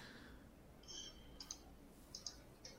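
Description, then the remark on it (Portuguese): A few quiet, crisp clicks of a computer mouse in audio settings, switching on echo cancellation, some in quick pairs, spaced irregularly over a faint background hiss with no talking. “Cliquei nela.”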